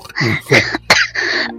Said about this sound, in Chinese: 师傅你咳嗽了，师傅，师傅你喝口水，